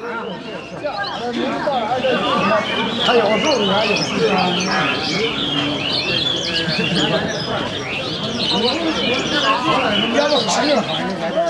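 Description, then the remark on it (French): A bird market in Beijing, China, bustles with dense, overlapping chirps and tweets from many caged birds, steady and loud throughout, while a crowd of people chatters underneath and an occasional dove coos. “Aujourd'hui, notre voyage musical nous conduira en Chine avec une première immersion au marché aux oiseaux de Pékin.”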